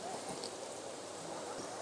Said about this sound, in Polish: No ale pomimo tego, że pada deszcz, powróćmy do zagadnienia umysłu i wszelkich związanych z tym narzędziem powikłań.